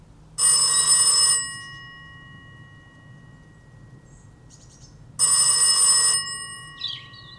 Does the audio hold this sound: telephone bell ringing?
yes